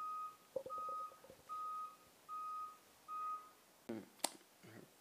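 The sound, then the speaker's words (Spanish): An electronic alarm beeps five times in a steady rhythm, each tone about half a second long, clear, followed by a few sharp clicks and knocks near the end. “alarma”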